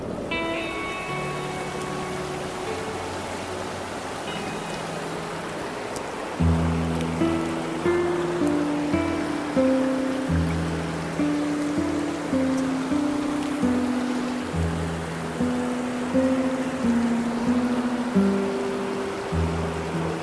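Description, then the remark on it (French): Steady rain patters on a garage roof in a continuous hiss, with tonal music notes coming in over it and growing louder partway through. No one speaks. “La pluie euh, a commencé à tomber un peu sur le garage.”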